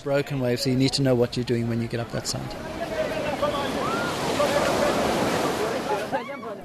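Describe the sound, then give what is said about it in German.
A man talks briefly at first, then a steady, full roar of ocean surf takes over, smaller waves breaking and washing continuously for several seconds at a family-oriented southern surf beach where beginners practise. “Die Wellen sind kleiner, da üben die Anfänger.”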